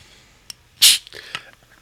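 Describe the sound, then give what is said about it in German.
A single sharp, hissy sneeze bursts out, brief and fairly loud, followed by a few faint rustles and small mouth sounds. “Ähm, Gesundheit.”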